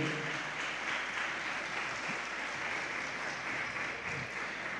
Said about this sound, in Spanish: ¿Puede darle palmas fuertemente al Señor?